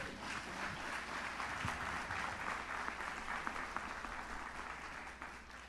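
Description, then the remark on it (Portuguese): An audience claps steadily in praise of God, a dense wash of many hands applauding together at an even, sustained level for several seconds with no voices standing out. “Aplaude a Deus, aplaude.”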